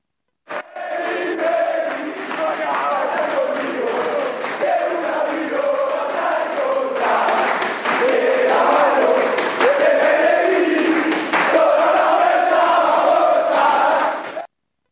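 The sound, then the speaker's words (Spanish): A group of San Lorenzo players chanting and cheering together in the locker room, celebrating the 2001 title: a loud, continuous wall of voices singing rhythmically for the whole stretch with shouts rising over the chant. “Así lo reconocían y lo festejaban los propios jugadores en aquel vestuario que celebró el título del el año 2001.”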